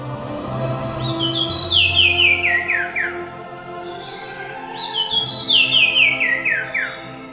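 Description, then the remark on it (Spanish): A Sumichrast's wren sings two clear, loud phrases of ringing whistled notes cascading downward in pitch, separated by a brief pause, over a low steady background rumble. “Este, eh, ese pajarito se llama Cuevero de Sumicrast.”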